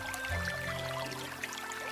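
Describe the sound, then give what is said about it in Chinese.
Spring water in Jinan, China babbles and tinkles steadily, a continuous bright splashing with scattered high droplet sparkles over a low, even rush, with no voices present. “听，泉水叮咚作响；”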